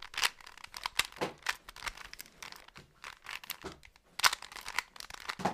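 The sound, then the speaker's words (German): A Rubik's cube being twisted, with a quick series of sharp plastic clicks and crunchy rattles in an uneven rhythm, fairly soft, with no voices. “Ähm, auf jeden Fall, ihr hört jetzt wahrscheinlich im Hintergrund die ganze Zeit dieses nervige, oder vielleicht finden manche, manche das auch nice.”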